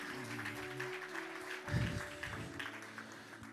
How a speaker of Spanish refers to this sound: Entonces, déle un aplauso al que vive por los siglos de los siglos, el grande, el poderoso.